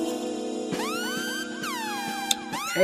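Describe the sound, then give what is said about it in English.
A dramatic siren sound-effect sting: loud, wailing tones sweep up and down in repeated swells over a steady low drone, filling the whole moment with no talking. “this doesn't even get a record scratch that gets the Kill Bill, Siren of Absolute Death”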